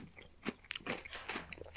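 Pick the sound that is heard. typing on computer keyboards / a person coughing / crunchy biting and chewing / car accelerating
crunchy biting and chewing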